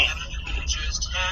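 Steady low rumble of a car interior fills the short stretch, a constant engine and road hum with faint, muffled higher sounds drifting over it.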